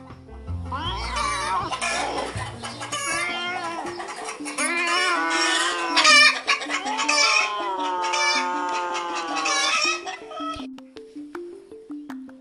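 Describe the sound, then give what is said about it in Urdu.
Chickens cluck and squawk in a loud, frantic commotion while a rooster crows, the calls overlapping continuously for several seconds before fading at the end, as the flock, including a bird named Shero, raises an uproar against a cat that tried to attack them. “ایک دو دفعہ بلی نے حملہ کرنے کی کوشش کی تو الٹا شیرو نے اس کی پٹائی کر دی سب نے مل کر خوب شور مچایا”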